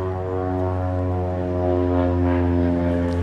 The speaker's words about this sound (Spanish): Bueno, hoy no hay ruido de tractores, hoy no hay ruido de camiones, hoy estamos frente a la playa. En este momento, cuando no hay ruido de tractores ni de camiones, pasa una avioneta por encima mío.